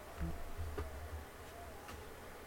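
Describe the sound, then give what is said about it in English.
A voice imitates the quivering twang of an arrow that has just missed someone's head: a low, wobbling buzz that pulses unevenly for a couple of seconds, fairly quiet, with a few faint clicks. “I think that's the sound of like when the arrow just misses your head and it, it's vibrating by your”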